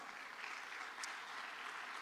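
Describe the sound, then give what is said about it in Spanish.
An audience applauding the Lord together, a steady, dense wash of many hands clapping that holds at an even level throughout, with no voices standing out. “Si usted lo cree, le da palmas al Señor con fuerza.”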